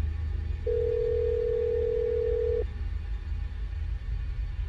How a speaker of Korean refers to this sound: 난 우선 함께 탁구를 했던 친구에게 전화를 걸었다.